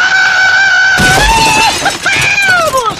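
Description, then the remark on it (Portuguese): A loud, drawn-out scream of despair, its pitch wavering and breaking over about three seconds, with rough, noisy bursts mixed in partway through. “Esse foi o meu grito de desespero”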